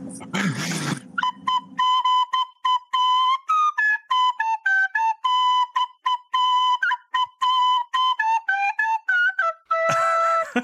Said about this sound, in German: Ihr wolltet als Intro-Musik die Blockflöte des Todes hören. Und das Spiel genau. Bitte sehr.